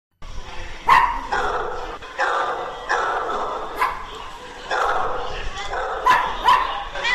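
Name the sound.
dogs barking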